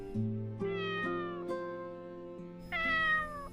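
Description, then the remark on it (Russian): A cat between a yellow fence and a white fence meows with its mouth open: two drawn-out, whiny meows, the first long and wavering, the second shorter and rising after a brief pause, with no one talking. “Возможно, меня она не воспринимала всерьез, так как даже не думала убегать, а начинала противно мяукать с открытой пастью.”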